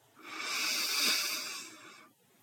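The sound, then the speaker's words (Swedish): A single long, deep inhale drawn in through the nose, a soft airy hiss that swells and fades over about two seconds, quiet with no talking. “Så andas in djupt genom näsan.”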